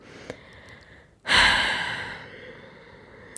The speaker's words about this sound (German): Muss ähm, den Leuten so ins Ohr atmen. Entschuldigung. Unangenehm.